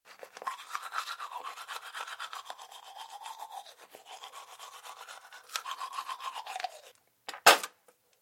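Someone brushes their teeth with quick, steady back-and-forth scrubbing strokes for several seconds, then stops, a short sharp burst of sound follows after a brief pause. No one speaks.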